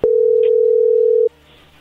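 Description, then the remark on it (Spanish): A steady, loud single-pitched telephone tone sounds for about a second and a quarter, then cuts off abruptly, leaving faint line hiss as the call connects. “A ver, ahí entró la llamada, no haga ruido.”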